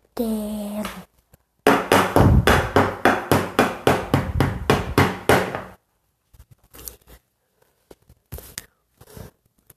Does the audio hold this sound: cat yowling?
no